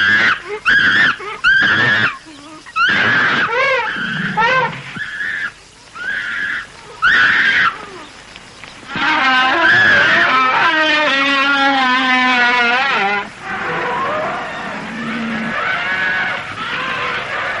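A herd of elephants trumpets loudly and repeatedly as they set off at great speed into the jungle, with shrill overlapping blasts at first, then a long wavering trumpet call over a rumbling, rushing background as the animals move.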